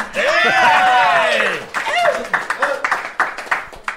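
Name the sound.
applause and clapping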